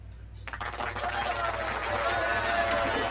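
After a short quiet start, a burst of clapping kicks in and holds steady, a dense, crackling wash of many hands applauding together at a constant, fairly loud level.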